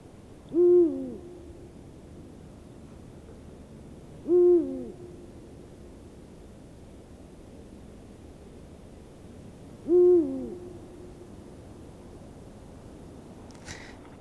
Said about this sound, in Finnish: huuhkajan puhallus. Ja sä pääsit kuulemaan sen ihan vierestä. Mä voin vaan kuvitella sitä hetkeä, että kuinka hienolta se voi kuulostaa.